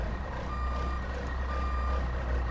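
A large truck idles with a low, steady engine rumble while its reversing alarm sounds a high, sustained beeping tone, fairly loud.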